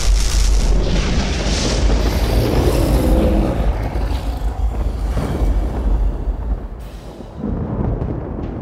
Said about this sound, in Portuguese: Não foi um choquezinho, foi um relâmpago. Bota o som aí, ó. Bom. Veio lá de fora da caverna.